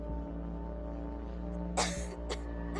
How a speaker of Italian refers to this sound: Tossisce tossisce ancora. La sua gola deve essere tutta tagliata da tutte quelle lamette di rasoio che l'hai convinta a ingoiare.